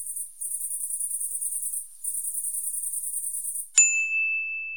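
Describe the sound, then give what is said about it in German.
Cicadas sing in a shrill, high, pulsing buzz, two long steady bursts with a brief break between them, then a bright chime dings and rings out at the end. “Das Singen der Zikaden.”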